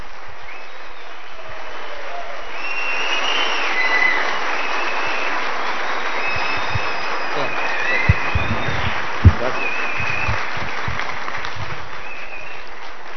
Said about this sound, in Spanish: Entonces, para no quitarle más tiempo a nuestro orador, por favor pongámonos de pie y vamos a recibir con un espectacular aplauso desde Medellín, Colombia,